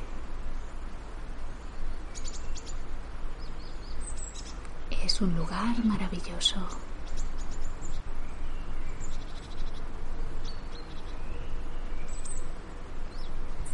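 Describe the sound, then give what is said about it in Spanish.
Forest ambience with scattered birdsong: short, high chirps and tweets come and go throughout over a steady natural hiss, while a voice speaks briefly in the middle. “Disfrutas de ese lugar, de los sonidos del bosque.”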